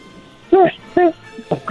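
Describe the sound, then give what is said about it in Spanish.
A child's voice, asked to make a little dog's sound, imitates a puppy's bark with two short, high yips followed by a couple of softer, quicker yelps, fairly loud. “pero te voy a dar los juguetes con una condición, que ahorita hagas el ruido de un perrito.”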